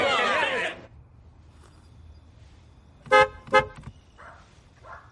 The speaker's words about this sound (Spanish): Un joven con traje y corbata espera en un coche. Diga. Oye, si vuelves a tocar el claxon, mi mujer saldrá y te matará.